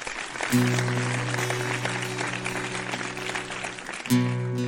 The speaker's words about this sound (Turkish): Alkışlar kendisine.